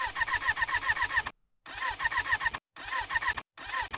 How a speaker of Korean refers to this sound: 소리만 나고 시동이 걸리지 않는다. 어? 어라? 뭐지? 다시 또 돌려본다. 또 다시. 또, 또, 또. 이젠 울리던 엔진 소리마저 들리지 않는다.